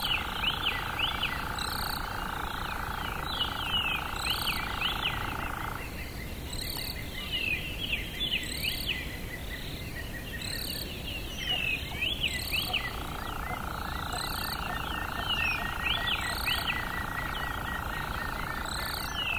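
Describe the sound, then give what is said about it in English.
A dense dawn chorus of many overlapping bird chirps and whistles, with a steady insect drone underneath that drops out briefly midway, then returns. Continuous and lively with no talking, recorded at dawn after rising at 4 a.m. in a remote place. “But as soon as we got there, and as soon as I heard that first dawn chorus that we woke up at 4 a.m. to go out and record, I immediately lost any of the preconceptions and any of the ideas that I had.”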